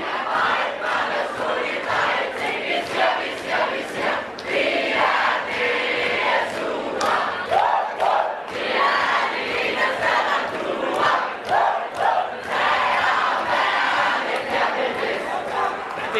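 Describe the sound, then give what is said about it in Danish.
A dense, packed indoor crowd stands shouting, yelling and screaming continuously, a loud, chaotic wall of overlapping voices with rising bursts of cheering, unbroken for the whole stretch. “Jamen, der er fuldstændig et pakket herinde. Det er slet ikke til at finde hoved og hale i det hele. Alle står og råber og skriger og Jeg ved ikke, om I kan høre, hvad de siger, men jeg kan i hvert fald ikke høre det.”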